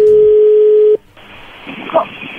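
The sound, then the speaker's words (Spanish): A telephone line dialing out: a steady, mid-pitched dial tone hums for about a second, cuts off, then gives way to hissy line noise with a brief beep partway through. “Ahí se está marcando, no haga ruido.”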